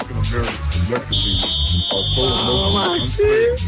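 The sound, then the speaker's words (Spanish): A door-release buzzer, the same sound as the police station's downstairs security door being opened to let people out, sounds as a single steady, high-pitched electronic tone lasting about two seconds, held at an even level over voices talking underneath. “Pero el mismo ruido cuando nos abren abajo de seguridad para salir.”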